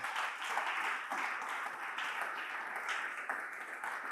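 An audience at a church service applauds for the Lord, many hands clapping in a dense, continuous patter with no voices standing out, holding an even loudness throughout.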